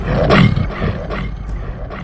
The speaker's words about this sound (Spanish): La bestia alzó la cabeza para dar la tarascada mortal, mientras el sordo rumor de su garganta se convertía en rugido.